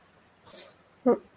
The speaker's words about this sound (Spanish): Primero de todo, perdón por el gato que estaba ahí maullando a saco y ahora más o menos está un poco más calmado.